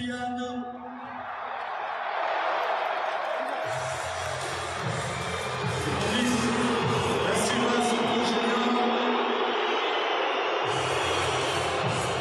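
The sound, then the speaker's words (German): A loud stadium crowd of Paris fans roars without a break, cheering at first for Mbappé and then turning to sustained booing as Neymar and Messi are announced, a dense wall of many voices with no single speaker standing out. “Bei Mbappé am Anfang noch Jubel.”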